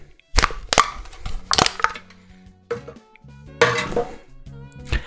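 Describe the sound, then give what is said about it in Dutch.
A drink can is cracked open with a series of sharp metallic clicks and pops, followed by a brief fizzing hiss and some clinking handling noises. No one speaks. “Goed, ik ga het blikje kraken.”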